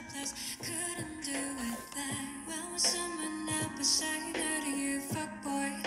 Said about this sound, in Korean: 그러면은 그 노래 들려드리면서 이 노래 왜 좋아하는지나 그런 에피소드 이런 거 한번 말해보면서 노래를 들어봅시다.